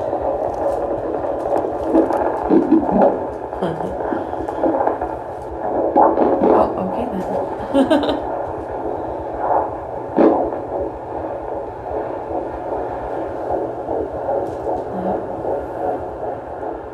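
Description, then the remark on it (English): A fetal Doppler monitor placed on a pregnant belly picks up a baby's rapid, steady heartbeat, heard as rhythmic whooshing pulses over a constant hum, with a few brief spoken words and a laugh. “they would put the fetal Doppler on your belly and so you you could hear the baby's heartbeat”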